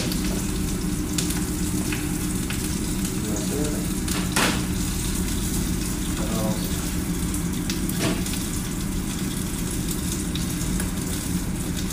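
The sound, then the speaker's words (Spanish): Steady, dense sizzling of Brussels sprouts frying in a hot pan previously used to sear salmon, loud, with a few sharper crackles and pops scattered through and no talking. “Se usted ve que está el sonido ahí. aunque se vean raros esos repollitos chiquitos, ¿verdad?”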